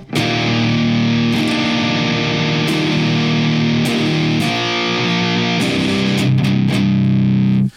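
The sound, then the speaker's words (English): Electric guitar played alone through a Red Witch Xenia overdrive pedal with the drive turned all the way up, heavily overdriven, thick and saturated with sustained chords and a few sharp string attacks, loud for about eight seconds before cutting off. “And here's the Xenia with the drive all the way up.”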